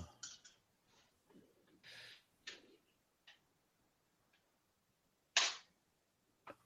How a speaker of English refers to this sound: So now I have two more dice to roll. See if I can get a four.